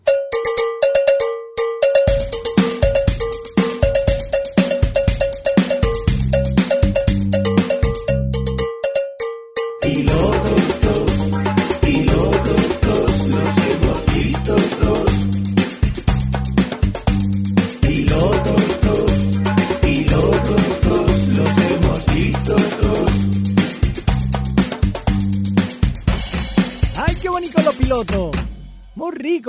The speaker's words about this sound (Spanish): Eh, oye, y ahora es momento de hablar de pilotos, así que dejarme poner la sintonía que hace días que no la oímos.